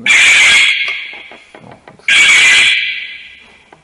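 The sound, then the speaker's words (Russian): A security alarm goes off in two loud, shrill electronic bursts, each lasting well under a second with a short gap between them, while a voice briefly speaks in the pause. “это сигнализация сработала.”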